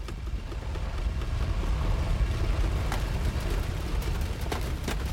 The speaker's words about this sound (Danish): Men så begyndte jorden at ryste under Ankers fødder.